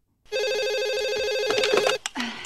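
A telephone rings once with a loud electronic trill, a rapidly warbling tone lasting under two seconds before it cuts off, followed by a brief fragment of sound, in a film's opening scene set at night inside a fairly wealthy house in a town, a call to Drew Barrymore's character.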